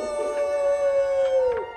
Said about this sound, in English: And suddenly he heard his echo. But he didn't know it was his own echo, and he kept looking for the wolf that was howling back.